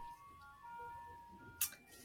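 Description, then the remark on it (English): Faint ice cream truck jingle drifting in from outside, its thin electronic tune held in steady tones over low background rumble, with a brief sharp noise partway through. “it's the ice cream truck. Maybe if you're oh. hearing, I don't know, the ice cream truck's outside here.”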